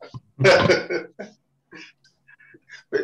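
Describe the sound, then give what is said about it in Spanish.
A single loud, explosive sneeze bursts out, followed by softer breathy snuffles and small clicking sounds, then another brief sharp noise at the end. “Salud.”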